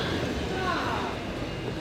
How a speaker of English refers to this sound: So it's 10 after 8, uh, heart of morning rush hour, and this is probably the most crowded either the platforms has gotten so far this morning. Uh, people are getting a little testy.